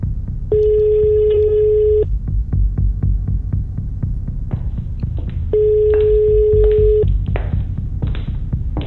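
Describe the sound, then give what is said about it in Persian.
Two long steady electronic ringback tones of an outgoing phone call after the call button is pressed, each about a second and a half, separated by a pause, with a low rhythmic thumping like a heartbeat pulsing underneath throughout. “نفهمیدم چجوری گوشی رو از جیبم درآوردم و شماره رو از توی لیست پیدا کردم جلوی هشکامو نمیتونستم بگیرم دستم بد میلرزید نفسم سخت بالا میومد دکمه کالو زدم و چشمامو بستم”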